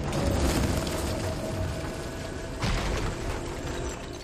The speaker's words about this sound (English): There's a transition at the climax of the film from what I would say organic, natural sound, which is as the temple falls apart. We are hearing basically earthquake sounds, thunder and rumble and cracking stone and falling debris.